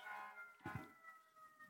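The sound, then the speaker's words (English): An emergency vehicle siren wails steadily out in a street in New York, a sustained high tone over traffic rumble, with a brief low thump partway through and no voices. “Hold, hold for, for sirens.”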